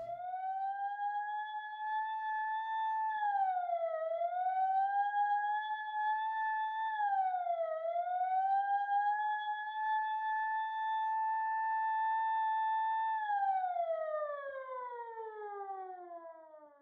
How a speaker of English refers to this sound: matched by the rising cascade of Nolastrian police sirens.